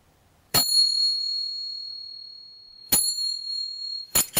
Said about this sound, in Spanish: En un momento toqué estas pequeñas percusiones turcas que usan las bailarinas en sus danzas, pero yo las toqué de una forma más pausada para dar el tiempo de imaginar.